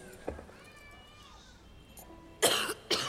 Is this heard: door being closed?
no